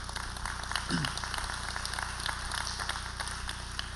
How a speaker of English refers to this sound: got a bigger applause than you.